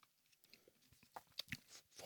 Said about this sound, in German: So, versuche ich mal dieses hm. Oh, es nusselt. Es knirscht. Oh. Furchtbar süß.